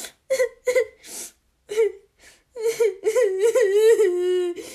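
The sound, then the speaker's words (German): A voice performs exaggerated fake crying, imitating a video game player who starts crying after dying: short whimpering sobs and gasps, then a long, wavering, drawn-out wail that rises and falls, fairly loud. “Der, der anfängt zu weinen.”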